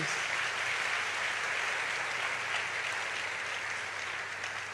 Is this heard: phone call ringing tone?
no